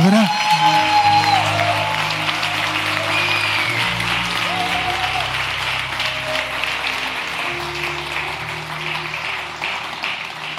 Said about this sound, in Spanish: Colócate de pie, dale un aplauso bien fuerte al Señor. Oye, si eso es un aplauso fuerte, estamos